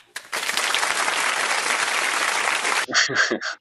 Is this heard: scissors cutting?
no